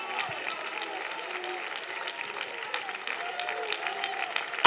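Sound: audience clapping and cheering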